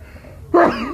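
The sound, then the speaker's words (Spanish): A single sudden, loud sneeze bursts out of near silence, a sharp voiced blast that trails off over a fraction of a second. No one speaks. “Salud.”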